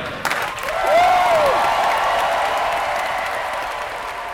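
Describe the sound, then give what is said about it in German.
A crowd bursts into sustained applause at the prize announcement of the 10th German Choir Competition in Freiburg, with ensembles cheering each other on; dense clapping, with a rising whoop of cheering near the start that fades as the clapping carries on steadily. “Bei der Preisbekanntgabe war es sehr schön zu sehen, wie alle Ensembles sich gegenseitig auch angefeuert haben”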